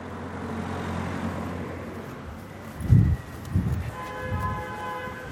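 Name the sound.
city street ambience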